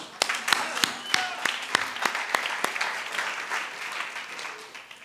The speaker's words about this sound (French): Je veux vous applaudir, vous. Bravo.